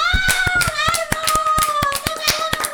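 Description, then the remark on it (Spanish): Audience applause for the national artist Garbolate: a run of sharp, steady claps at a brisk, even rhythm, with a sustained high-pitched tone or cheer held underneath the whole time. “Un aplauso también para Garbolate.”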